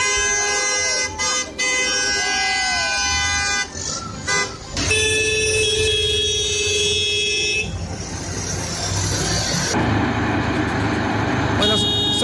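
Loud, overlapping vehicle horns honk continuously in long sustained blasts during a farmers' tractor protest blocking exits from towns in the province, with a clamor of traffic and crowd noise underneath on a busy road.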